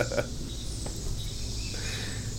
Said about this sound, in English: So, just so everybody knows that cares to listen, we're sitting on a back porch uh, with lots of greenery, and birds and wildlife and such.